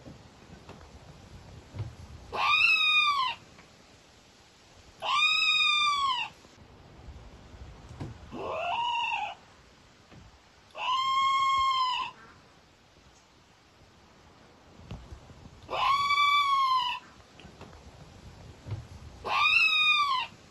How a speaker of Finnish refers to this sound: Siitä taitaa muuten olla jo 12 vuotta aikaa, kun luontoillassa käsiteltiin aihetta naukuva orava tai vinkuva orava, ihan miten haluatte.